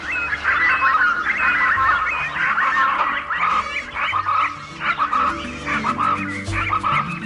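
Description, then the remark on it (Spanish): Harsh, repeated bird calls with a honking, fowl-like quality sound almost continuously over a steady low droning background, fairly loud and busy throughout, with no talking; presented as the call of Puampuan, a mythical witch bird of the forest, heard from afar. “Pocos son los que en verdad han visto con sus propios ojos a Puampuan, el pájaro brujo, pero en ocasiones se escucha a lo lejos su canto inconfundible.”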